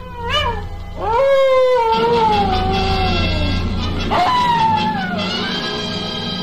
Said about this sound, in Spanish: Precisamente detrás de la casa había sonado el aullido de un coyote.